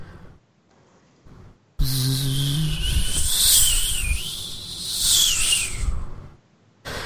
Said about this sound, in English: This sound that seems almost like if the wind was made of bees? this soft buzzing sound that flows like wind, this static, this energy.